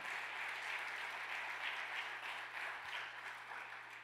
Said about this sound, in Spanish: ¿Cuántos están de acuerdo? Vamos, darle el aplauso fuerte a papá.